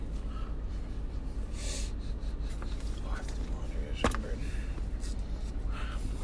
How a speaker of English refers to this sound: sniffing your watch.